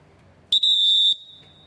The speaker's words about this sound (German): Und vielleicht noch einen Doppelpfiff. Das gibt es ab und zu, wenn wir etwas Spezielles ankündigen müssen. Zum Beispiel einen Wechsel oder dass der Pfleger aufs Spielfeld muss kommen oder dass wir eine Ermahnung aussprechen müssen.